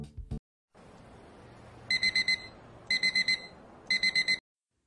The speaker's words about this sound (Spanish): Siete de la mañana y apago el despertador.